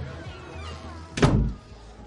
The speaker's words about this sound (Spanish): Él entra en su dormitorio y cierra la puerta.